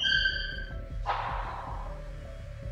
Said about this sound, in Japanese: ドアがぶち破られる音が電話越しに聞こえる